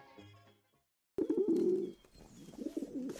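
A pigeon coos loudly, a throaty rolling call repeated in a couple of bursts after a brief quiet start with faint tonal sounds.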